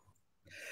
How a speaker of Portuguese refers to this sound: gente, eu quero espirrar. Nossa.